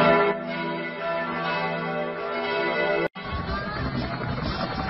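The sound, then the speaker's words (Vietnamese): Church bells ring on 28 January 1973, continuously in a dense, overlapping peal with long sustained tones, briefly cutting out near the end before resuming, fairly loud and with no talking. “Vì vậy, nếu trở lại thời điểm ngày 28 tháng 1 năm 1973 nói trên thì những hồi chuông vang lên hôm đó, chẳng khác nào là hồi chuông điếu tan, báo hiệu cho sự sụp đổ của miền Nam”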